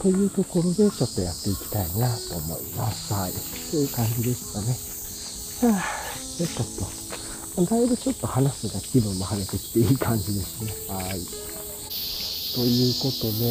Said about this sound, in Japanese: まあなんか相変わらずね、めっちゃセミが鳴いてますけれども。